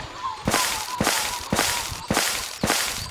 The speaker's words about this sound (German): Die Warnungen sind keine Pfützen, sondern schwingende Lianen. Man hört sie hier.